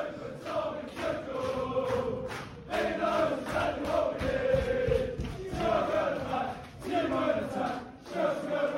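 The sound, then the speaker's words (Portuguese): A large crowd of Chelsea supporters sings a relatively new rhythmic chant for manager Tuchel in a stadium, voices massed and reverberant, with steady melodic phrasing and occasional claps or shouts rising above the singing. “E, e duas músicas relativamente novas da torcida do Chelsea.”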